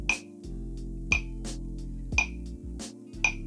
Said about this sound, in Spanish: Y entran las claves dudo que alguien las haya escuchado en la canción.